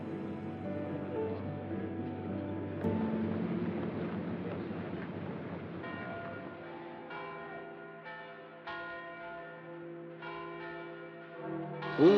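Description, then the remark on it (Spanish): All the church bells of Rome peal together in a dense, ringing wash as the Second Vatican Council opens, overlapping strikes layered with no voices, sustained for the whole stretch and swelling louder at the very end. “Entre el repique de todas las campanas de la ciudad eterna, se abre el concilio ecuménico Vaticano II convocado por su santidad Juan XXIII.”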